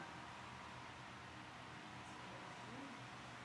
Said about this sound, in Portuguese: Agora, esse, esse ventilador não pode ficar um barulho danado.